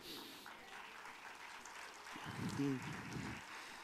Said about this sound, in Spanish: Por sus aplausos ya yo sé a quién ustedes le van. No tendría que ser adivino ni tener don de profecía para saber que ustedes le van a Cristo.